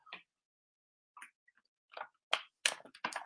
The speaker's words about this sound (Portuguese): ah, deixa eu beber um golinho d'água aqui